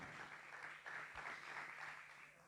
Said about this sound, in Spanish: Fue malo porque los aplausos fueron malos, pero bueno.